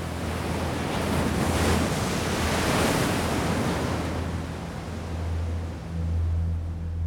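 Steady roar of ocean surf washing onto the shore, broad and continuous with swelling surges, mixed with low wind rumble buffeting the microphone. No voices.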